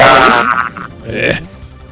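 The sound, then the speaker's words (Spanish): Harsh, garbled microphone sound during a radio traffic report, with buzzy, crackling distortion that smears a voice-like tone into noise, loud at first and fading before a second rough burst near the end. “qué feo suena el micrófono.”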